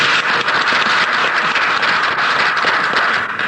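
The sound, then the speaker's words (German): Steady applause from an audience, a dense wash of many hands clapping at once, fairly loud and even throughout with no voices over it. “Applaus”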